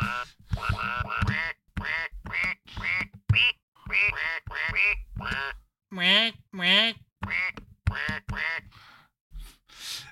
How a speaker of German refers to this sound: Äh, waren das Enten? Das waren Enten, ja.